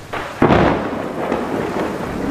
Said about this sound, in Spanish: La lluvia comenzó a caer junto con docenas de rayos que empezaron a destruir postes y a pegar en el monte.